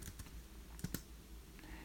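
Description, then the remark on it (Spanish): Quiet typing on a Bluetooth keyboard, used to turn off the VoiceOver screen reader: a few soft key taps, with two sharper clicks close together near the middle, against a faint background and no voices. “Le doy doble toque o con un teclado Bluetooth en, en este caso.”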